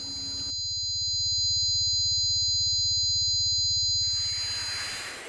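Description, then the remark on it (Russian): A simulated tinnitus sound: steady high-pitched ringing tones held over a low, rapid buzzing pulse, giving way to a hissing rush of noise near the end, loud and continuous. “This is my tinnitus.”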